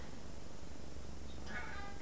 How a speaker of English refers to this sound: Sorry, my cat. just started meowing as soon as I turned on the video.